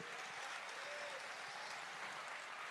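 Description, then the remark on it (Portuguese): An audience applauds for Jesus in a dense, steady wash of clapping that holds at an even level for the whole stretch, with no distinct voices standing out. “Dê um forte aplauso.”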